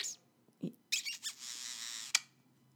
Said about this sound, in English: You say thank you. You've you've given a kiss. Okay. Uh, you're a good bird. Good bird. Why? Okay. He's giving me kisses.